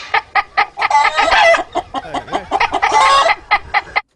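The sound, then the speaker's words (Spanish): In a game show's human-or-animal round, a rooster crows and clucks while a human voice imitates it, both played at the same time: loud overlapping bursts of choppy clucks and two longer, strained crowing calls, with no ordinary speech. “¿Humano o animal? Vamos a poner los dos al mismo tiempo.”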